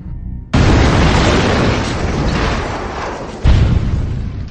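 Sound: bomb explosion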